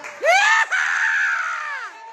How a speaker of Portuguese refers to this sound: Quem gostou, faz barulho, bate palma, grita aí.